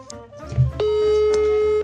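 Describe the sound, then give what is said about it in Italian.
An outgoing phone call's ringing tone as someone is called to see if they answer: a single steady, loud electronic tone starts a moment in and holds for about a second, after brief low clatter, with no talking. “Adesso oh, vediamo se risponde almeno al telefono.”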